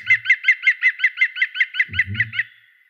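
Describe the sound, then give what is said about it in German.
A green woodpecker's loud laughing call: a fast, even run of about a dozen ringing notes that trails off at the end, with a brief low rumble near the close. “aber natürlich, was nicht fehlen darf, ist, dass der Grünspecht der Vögel des Jahres war.”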